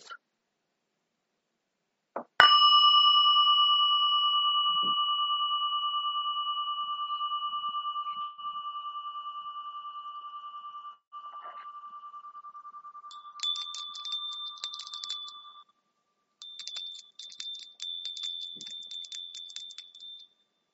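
A meditation bell is struck once and rings out with a clear, sustained tone that slowly fades, followed by a higher, shimmering ring that pulses briefly twice. No voices are heard.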